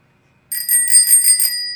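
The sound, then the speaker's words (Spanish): A bicycle-style bell on a beer glass rings rapidly about six times in a quick, bright trill, loud, with a sustained metallic ring fading out at the end. “Mira, mira, ese, ese, ese, el vaso viene con un timbrazo y todo. Dale el timbre.”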